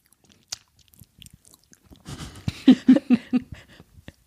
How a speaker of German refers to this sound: Ja, jetzt müsst ihr leider eine Weile zuhören, wie wir schmatzen, weil wir essen jetzt einfach und reden nicht mehr. Sorry.